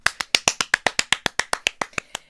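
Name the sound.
applause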